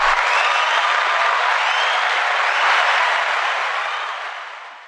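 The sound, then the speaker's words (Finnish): An applause sound effect played from a soundboard: a crowd applauds steadily for about five seconds, a dense wash of clapping at even loudness that tapers off slightly at the end, with no voices over it. “Saataisiko me yleisöltä pienet aplodit tähän väliin?”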